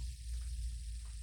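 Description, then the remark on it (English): A fidget spinner whirs steadily for about a second, a low continuous hum with a faint airy hiss on top, fairly quiet, with no voices. “Can you pass me my fidget spinner?”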